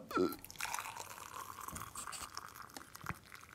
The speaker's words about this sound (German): Jetzt muss ich aber erstmal das kochende Wasser hier in die Teetasse reinfüllen.